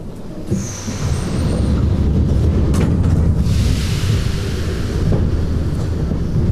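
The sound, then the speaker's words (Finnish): A metro train rumbles steadily through an underground station tunnel of the St. Petersburg metro, Russia, a loud, continuous low roar with a brief high metallic squeal near the start and no voices. “Metrotunnelin nielusta pöllähtää väkevä hengityksen haju, kiskojen, pölyn ja voiteluöljyn koktail.”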